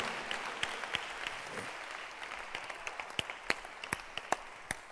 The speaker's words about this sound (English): So when a pastor is teaching you, the food you must eat to grow your spirit. You must clap for the pastor because he's, he's trying to do something for you.